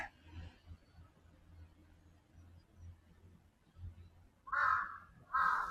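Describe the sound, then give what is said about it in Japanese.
Two loud, harsh crow caws ring out close by near the end, one right after the other, from crows approaching, following several seconds of quiet outdoor rumble. “すぐ近くにカラスがおります。”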